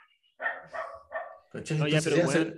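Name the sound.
dog barking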